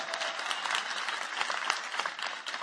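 An audience claps steadily for the hosts, a dense wash of many overlapping hand claps at an even, moderate loudness throughout, with no voices standing out.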